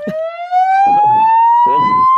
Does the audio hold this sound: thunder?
no